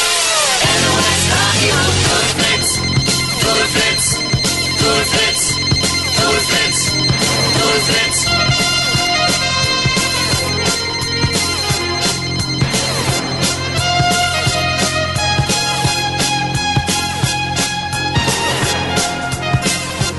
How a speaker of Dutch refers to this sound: Oh ja, nou ja, over, over jingles gesproken, die, eh, eh, die mij, en nog steeds als ik deze hoor, denk ik, is het, is, zou dit de allerbeste radio jingle aller tijden zijn?